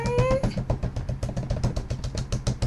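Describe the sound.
Rapid, steady tapping on a computer keyboard, slammed to make a drumroll, fairly loud, with a brief high whining tone at the very start.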